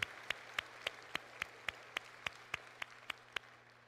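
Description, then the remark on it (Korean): A church audience claps together in a steady, even rhythm, about thirteen sharp claps in quick succession over a faint background hum, with no talking, giving thanks at the first service held with a newly installed LED screen. “먼저 하나님께 감사드리고 그동안에 수고하신 모든 성도님들께 감사하는 마음으로 우리 영광의 박수 올려드리도록 하겠습니다.”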